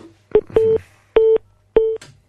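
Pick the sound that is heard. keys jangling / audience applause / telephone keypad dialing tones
telephone keypad dialing tones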